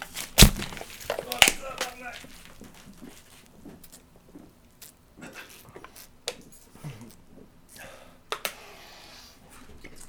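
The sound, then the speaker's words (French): A beer can is punctured with a sharp crack, then popped open with a second loud burst and hiss, followed by several seconds of someone chugging the beer, with gulping and splashing. “tu perces, t'ouvres, tu, tu bois. C'est pas plus compliqué que ça.”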